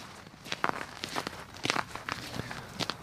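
Footsteps walking through an allotment garden complex at a steady, unhurried pace, each step a soft crunchy scuff repeating about every half second, moderately quiet with no voices.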